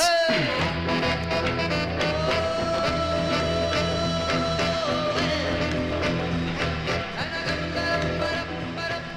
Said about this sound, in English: funky horns.